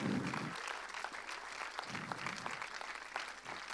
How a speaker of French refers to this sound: Allez, on les applaudit bien fort.